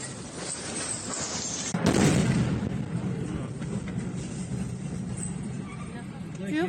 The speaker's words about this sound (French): Après ces répliques, on va voir d'autres images, comme cette jeune fille aussi qui se filme, qui passe un coup de téléphone. Et vous allez le voir, une explosion derrière elle.